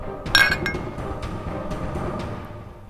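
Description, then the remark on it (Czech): Glasses clink together in a toast, one bright ringing chink near the start that fades out over a low murmur of background noise. “No tak jo, tak na zdraví, tak šťastnou Cestu”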